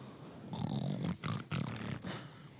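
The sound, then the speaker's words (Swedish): A person snoring loudly, with a rapid run of four rough, rasping snorts in an uneven rhythm and no talking. “Den andra personen som kommer, jag vet inte hur det är med er, men det värsta jag vet är att vara, sova med människor som snarkar.”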